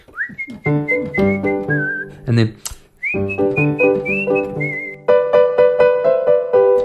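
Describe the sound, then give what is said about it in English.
Two people whistle a bright melody together over a steady plucked, chordy accompaniment, pausing briefly when a voice speaks a couple of words, then returning with sustained notes alongside a fuller rhythmic backing. “And what I was thinking of when I did that was the two people whistling together, Huckle and Miss Mary Meadow.”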